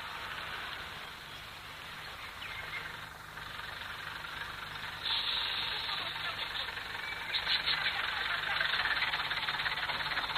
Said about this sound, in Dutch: Daar komt de bus van acht uur.